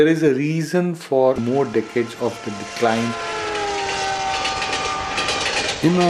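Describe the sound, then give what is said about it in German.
A voice speaks briefly, then the midday express train roars past through the village of Manumatra from Khushwant Singh's novel Train to Pakistan, a loud steady rush with sustained metallic squealing tones that carries on for several seconds. “wenn der mittägliche Schnellzug durchfuhr, legte das Dörfchen Manumatra eine Ruhepause ein.”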